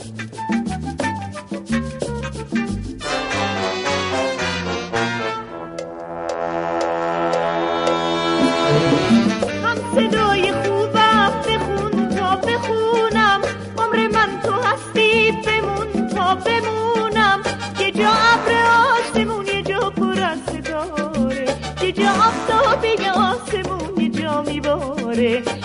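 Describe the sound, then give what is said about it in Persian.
A Persian song sung by a female singer plays loud and full throughout, with dense instrumental accompaniment and a long sustained melodic line swelling in partway through. “برای این بانوی موندنی موسیقی ایرانی آرزوی سلامتی و موفقیت بیشتر میکنیم و تولدش رو با شنیدن یکی از کارهاش با هم جشن میگیریم”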